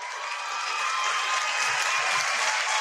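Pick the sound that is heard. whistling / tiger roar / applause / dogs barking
applause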